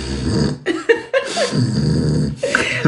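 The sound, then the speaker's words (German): A person imitates a black dog snorting with a run of loud, raspy nasal snorts and grunting breaths, several bursts in quick succession with brief gaps between them. “dann fängt er also an zu schnaufen.”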